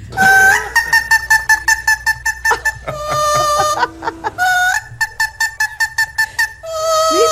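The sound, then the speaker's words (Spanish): A parrot sings an opera melody in loud, bright staccato notes, rapid repeated pulses stepping between pitches, with a few longer held tones, with no talking. “vamos a escuchar a esa cotorra imitando la flauta mágica de Mozart en voz de una cotorra”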